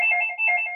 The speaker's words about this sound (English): As I see, as I, uh, that's my phone ringing, but let it ring.